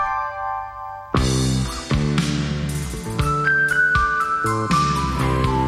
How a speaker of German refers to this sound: ein Wirbel von Soundtrack-Streichern gezogen gezupftem Bass und kaskadierendem Klavier ist die schönste Musik dieser Ära.